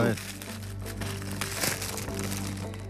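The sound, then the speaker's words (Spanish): Continuous crinkling and tearing of paper wrapping as a Valentine's Day gift is opened, busy and irregular across the whole moment, with a low steady hum underneath. “Fran Estrada nos ha traído un regalo. Sí, de San, Valentín. Está aquí.”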